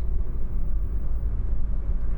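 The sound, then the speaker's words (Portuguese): A steady, deep rumble of a car moving along the road behind the speaker, constant and fairly loud throughout with no clear rise or fade, and no voices. “Tem um carro atrás de mim.”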